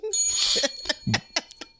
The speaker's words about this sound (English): But um no, you're doing a fine job with the bell, and I appreciate the addition to the show.